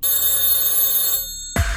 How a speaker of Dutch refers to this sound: als bij jou de telefoon gaat, dan is het misschien wel de hindertelefoon